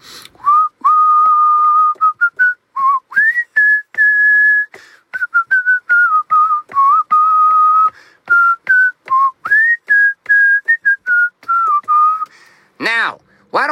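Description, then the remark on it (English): Someone whistles a lively melody, the clear tone hopping between sustained and clipped notes for over ten seconds with no talking, then it stops with a brief sharp sound. “I don't even know why we whistle. Uh, it's just like what we do.”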